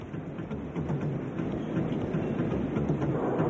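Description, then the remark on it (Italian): A Moscow metro train in 1985 rumbles along the rails with a steady, dense low roar and faint rhythmic clatter, continuous throughout, with no voices. “Molti percorsi in metropolitana.”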